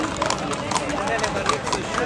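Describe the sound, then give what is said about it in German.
Racehorses' hooves clip-clop at an even walking pace on firm ground as the horses are led around the parade ring at a racecourse, a steady run of hoofbeats, with the voices of the gathered crowd murmuring continuously underneath. “Die Favoriten besprochen, sich dicht gedrängt und getuschelt, die Tiere begutachtet, die mehr oder weniger nervös durch den Ring geführt werden.”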